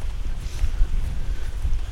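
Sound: wind blowing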